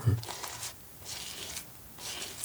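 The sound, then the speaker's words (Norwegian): Melted butter being brushed over crispy roasted skin: three soft, crackling sweeps in a steady rhythm, fairly quiet, with no talking. “Og det er lyden av det, det, er lyden av noe godt som blir pensla.”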